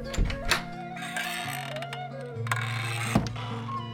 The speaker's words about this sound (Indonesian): Dibuka, saya buka pintu nih. Kasih efek ya nanti ya.